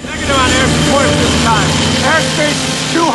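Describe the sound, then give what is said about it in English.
Loud, continuous aircraft engine roar fills the scene as planes land on the flight deck of a very busy aircraft carrier, with muffled voices faintly audible beneath the steady mechanical din. “this is like airplanes landing behind them.”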